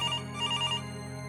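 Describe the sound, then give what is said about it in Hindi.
A phone ringtone of an incoming call from a mother, around ten o'clock in the morning, chirps in a quick repeating electronic pattern over a steady low hum, then stops, leaving only the hum. No one speaks. “तकरीबन दस बजे मां का कॉल आया”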